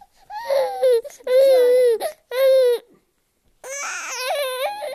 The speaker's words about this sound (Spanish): ¿Qué está diciendo, Eric? ¿Tú qué sabes idioma de bebés?